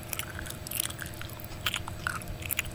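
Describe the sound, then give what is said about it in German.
A reindeer chews and bites at network cables in a basement, producing a steady series of crunchy, clicking gnawing sounds with no talking. “Ach, sieh mal einer an, ein Rentier. Und es bedient sich an den Netzwerkkabeln.”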